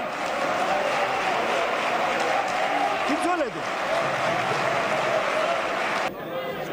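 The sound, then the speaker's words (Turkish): Loud, sustained standing ovation from members of parliament for the CHP leader in the General Assembly of the Turkish parliament, with scattered cheers and voices mixed into the dense clapping. “Milletvekilleri CHP liderini ayakta alkışladı.”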